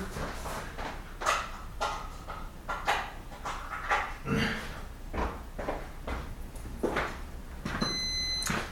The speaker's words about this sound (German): So, der Crosstrainer meldet sich mit einem Piepston. Ich weiß nicht, ob das bei der Aufnahme rüberkommt.